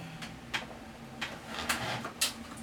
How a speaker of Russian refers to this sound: у твоего кресла откидывается назад спинка. Я думаю, так задумано или он рухнет сейчас? Да, но ну, сейчас рухнет.